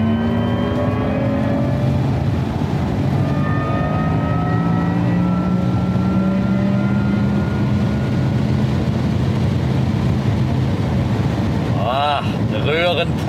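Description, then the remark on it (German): A car engine roars as it accelerates hard on a three-lane German Autobahn, reaching 215 km/h in the left lane, its pitch climbing steadily in long sweeps, with a brief voice breaking in near the end. “Ah, da hört er wieder. lass mir mal röhren.”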